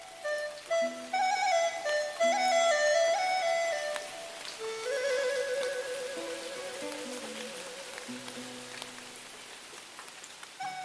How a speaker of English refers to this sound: Most prevalent are the rains. A single rainfall can last two or three days. But don't be distressed. Just look. It is like the fine hair of burdock, like delicate embroidery needles of fine silk, densely slanting downward